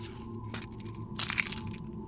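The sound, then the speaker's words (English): A ring of keys jingles briefly as it's tossed, then rattles again in a longer metallic clatter as it's caught, over a low steady hum, with no one speaking. “Toss me the keys.”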